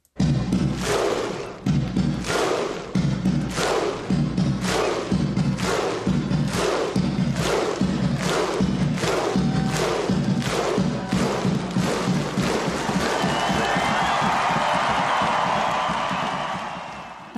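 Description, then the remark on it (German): A huge crowd of Icelandic football fans performs their victory ritual at a European Championship, a slow, rhythmic chant of synchronized thunderous claps, each boom paired with a deep collective shout, the pace quickening until it dissolves into sustained cheering and applause. “Und ich erinnere mich vor allem noch sehr, sehr gut an dieses Siegesritual der Isländer.”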